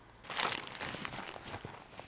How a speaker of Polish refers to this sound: Przegrzebuję tam te różne rzeczy, bo to jest trochę jak w damskiej torebce.